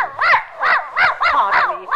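An old white poodle yaps rapidly and insistently at a woman's heels, about seven sharp, high-pitched yaps in a quick steady rhythm, fairly loud with no voices.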